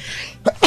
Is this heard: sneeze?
yes